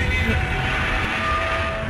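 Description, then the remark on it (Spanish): A person imitates a giant movie monster's roar with one loud, rough, sustained cry that lasts about two seconds, steady throughout. “Ese es el rugido de Godzilla.”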